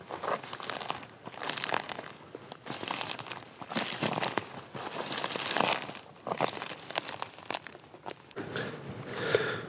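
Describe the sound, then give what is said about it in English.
Dry bracken stems crunch and crackle under the feet of a person walking on a hillside in late winter, in a steady walking rhythm, fairly loud, with brief pauses between bursts of crisp snapping and rustling. “the sound of dried bracken stems under my feet.”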